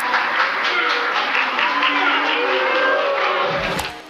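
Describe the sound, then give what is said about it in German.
Journalists boo Britney as she leaves a press conference: a dense, sustained wash of low droning voices with murmuring and scattered claps for about four seconds, then a brief thump as it fades. “Beim Rausgehen wird sie von einigen der Journalisten ausgebuht.”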